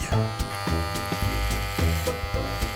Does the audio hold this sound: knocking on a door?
no